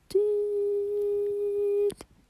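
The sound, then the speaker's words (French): A voice imitates the beep a radiotherapy machine makes when the rays are delivered during treatment, holding one steady, flat mid-pitched tone for nearly two seconds. It starts and stops abruptly, with no talking around it. “quand il y a le traitement, quand il y a les rayons, on entend un bip, genre”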